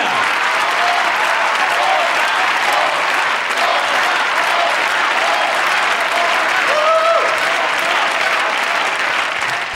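A large audience claps steadily and loudly for several seconds, a dense, continuous wash of applause with faint cheers rising near the end.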